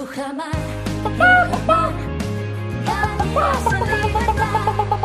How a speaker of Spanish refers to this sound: Las gallinas de Rujamar. Las mejores gallinas de España preocupadas por reciclar.